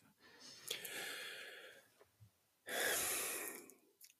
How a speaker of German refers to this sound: Er Schnauft erstmal. erstmal kurz es, durchatmen.